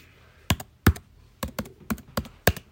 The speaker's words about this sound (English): I'll do typing somewhere.